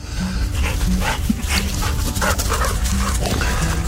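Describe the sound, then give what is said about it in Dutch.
Several dogs, running loose, bark and yip in short, irregular bursts over a steady low rumble of background noise, with no talking. “Nou, andere honden die, eh, ja, alles loopt los natuurlijk hier.”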